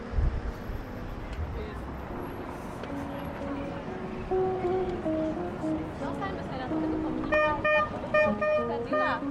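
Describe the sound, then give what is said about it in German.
Busy city street not far from a train station, with a steady rumble of traffic, car horns tooting and honking repeatedly, and a background murmur of crowd chatter, growing denser with overlapping horns toward the end. “spring mal ein bisschen in der Stadt und du erzählst uns, wo wir sind”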